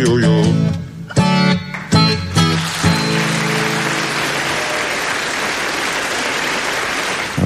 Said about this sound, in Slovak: potlesk na správnom mieste, hlavne na koncerte. Je fajn, keď to znie aspoň takto.